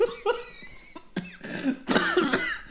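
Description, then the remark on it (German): A rough, phlegmy smoker's cough, several harsh hacking bursts in quick succession, fairly loud, with some throat clearing between them. “oh, das hört sich ja. Entschuldigung. Komm vom Rauchen.”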